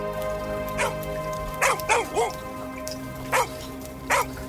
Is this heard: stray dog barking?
yes